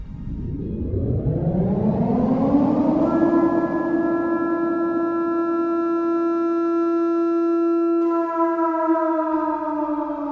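A siren winds up from a low growl, rising steadily in pitch over about three seconds, then holds a loud, steady wail with harmonic overtones before starting to wind down at the end. No voices.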